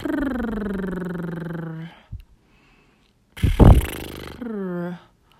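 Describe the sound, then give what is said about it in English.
A voice hums through fluttering lips in a long, gently falling tone, then a brief pop, a noisy sputtering burst of blown air, and a shorter voiced lip trill. “Discovering playful lips through blowing air bubbles”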